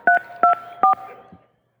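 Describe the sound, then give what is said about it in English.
Three crisp telephone keypad tones beep in a steady, evenly spaced sequence as a phone call is dialed, loud, followed by a faint low thud and quiet background hiss. “If I call you and you say the password is WWE Universe, you win.”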